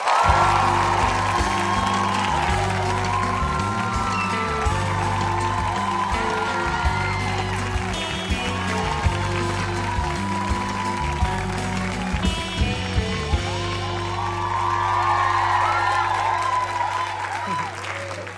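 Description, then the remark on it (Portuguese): A studio audience applauds and cheers loudly for the whole stretch as actor Cauã Raymond is welcomed onto a talk show, punctuated by excited high-pitched shrieks and whoops, with a steady musical backing humming underneath. “Se eu fosse absolutamente sincero, também ia dar gritinhos de uh! alegria de você estar aqui.”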